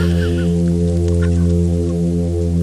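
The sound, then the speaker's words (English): A loud, continuous low humming call of a toadfish drones without a break, buzzy and rich in overtones, like an engine, with faint crackly noise above it and no voices. “keep in mind they also have a tendency to just do this singular, loud humming sound.”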